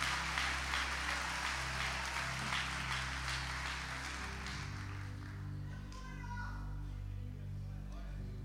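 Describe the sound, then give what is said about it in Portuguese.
An audience claps for Jesus in a dense, steady patter for about four seconds, then the applause fades out, leaving sustained low musical tones humming underneath throughout. “Se é para Jesus, melhore essas palmas aí, meu irmão.”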